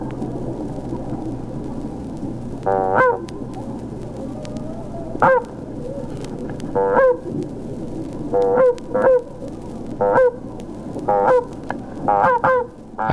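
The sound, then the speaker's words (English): Voices imitate honking geese, letting out repeated nasal honks in short, irregular bursts, sometimes overlapping, over a steady low rumble of background noise. “It's the authentic sound of people who think they're geese.”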